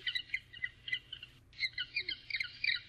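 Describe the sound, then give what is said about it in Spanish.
Penguins at the Shedd Aquarium in Chicago calling in a busy chorus of shrill, squawking cries, many overlapping bursts in rapid succession with a brief pause midway, over a low steady hum. “Bueno, pues nuestra historia sonora de hoy tiene que ver, estamos escuchando pingüinos.”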